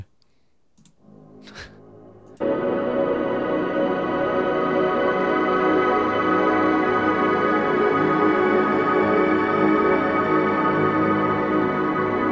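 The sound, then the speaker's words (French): A few soft clicks and taps, then a loud synth chord swells in and sustains as a dense, washy ambient pad drenched in the massive cathedral setting of a free reverb, holding steady until the end without any voices. “Après, bon, c'est vraiment pour de l'ambiante, c'est très très massif, hein, donc pour les, les réverbes un peu discrètes, c'est pas trop ça.”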